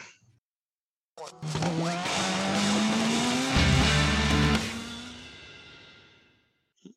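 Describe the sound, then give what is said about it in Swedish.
A short jingle announcing an IndyCar segment, built around a loud racing car engine that revs up and roars for about five seconds before fading away, with no talking over it. “Ja, och den där jing, gingen förkunnar ju att nu ska vi prata Indycar, men som sagt, det kommer ju tangera lite Formel 1.”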